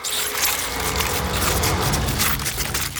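A swarm of giant scorpions leaping from a river, clicking and chittering, a dense, continuous mass of dry, woody clicks and crackles that stays loud throughout, with no voices.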